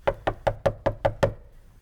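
Seven quick, evenly spaced knocks on the wooden door of a building, with a hollow resonance, in a steady rapid rhythm that then stops, leaving brief quiet. No voices.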